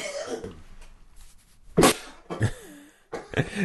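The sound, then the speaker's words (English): A person coughs several times in short, harsh bursts, a sharp loud one followed by a few rougher coughs, with brief pauses between them. “Get on that cough button, man.”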